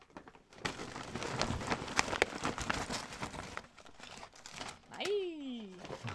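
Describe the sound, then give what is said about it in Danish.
Busy rustling and crinkling of loose paper for several seconds as advertising leaflets are tipped out of a Føtex bag, ending with a brief falling, squeaky vocal-like sound. “Nå, der er papir. Der er bare noget papir.”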